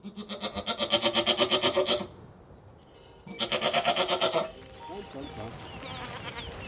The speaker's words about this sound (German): Das ist doch auch eine schöne große Ziege, die 22. Ja. Die hat aber auch so was ganz Ruhiges.